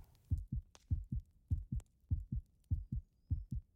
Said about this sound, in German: Mein Brustkorb hob und senkte sich schnell. Ich presste meine Hand gegen mein wild schlagendes Herz.